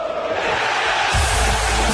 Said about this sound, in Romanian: Suntem în fața unei uh, premiere Morning Glory, iată, după aproape 2 ani ovaționează